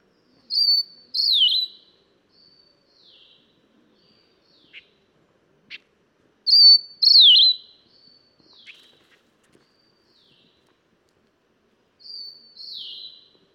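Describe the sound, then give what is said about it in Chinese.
Song of the Steere's liocichla, a bird endemic to Taiwan: a loud, high, clear whistled phrase of two slurred notes, repeated three times at intervals, with faint softer notes and brief clicks in between and no talking. “不过台湾也是有叫声很吸引人的鸟类哦，像是台湾的特有种怂鸟，它的声音我就觉得还蛮好听的。”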